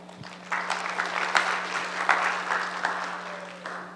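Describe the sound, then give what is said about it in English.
A crowd applauds for a few seconds, a dense patter of many hands clapping at moderate volume, rising quickly after a brief quiet start and holding steady with a faint low hum underneath. “Give them a hand clap there for a second.”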